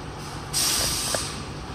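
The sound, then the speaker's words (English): The air brakes of a 60-passenger shuttle bus release a sudden, loud hiss that bursts in about halfway through and holds steady, heard alone over a low background rumble. “Oh, we got a, another shuttle bus, 60 passenger.”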